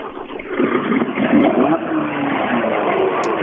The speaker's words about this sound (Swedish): Och nu du, Sebbe, nu är det Ford Puma Kit Car.